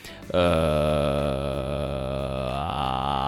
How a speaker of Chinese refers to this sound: 这就是一个气泡音的头音，但是我们不可能用这种气泡的状态去唱歌，所以其实放到歌曲中去演唱的话，气泡音还要连带着我们演唱的旋律。